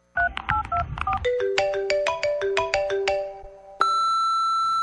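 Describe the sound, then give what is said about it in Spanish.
A cell phone ringtone plays a quick run of bright electronic melody notes, then shifts to a sustained tone near the end before the voicemail of Javier Hernández Bonet's cell phone answers. The ringtone is loud, and no one speaks. “está comunicado con el celular de Javier Hernández Bonet.”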